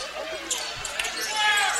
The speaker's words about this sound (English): They're going to try to inbound this for the Tigers right in front of the Pirates student section, and they are making a ton of noise.